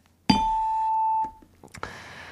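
A bright, bell-like "ding-dong-dang" correct-answer chime from the game segment of the Korean radio show Gayo Gwangjang rings out clearly and sustains for about a second before fading, followed by a short burst of soft noise. No one speaks.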